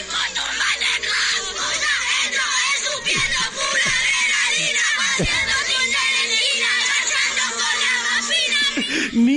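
Many children jump and scream continuously over a song at a birthday party, loud and chaotic, with a few dull thumps and music buried beneath the noise.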